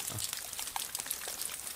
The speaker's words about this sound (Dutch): En dan regent het ook nog.